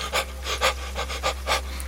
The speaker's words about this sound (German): Der Gasaustausch in deinem Körper findet unten in der Lunge statt, nicht oben. Wenn du also flach und kurz atmest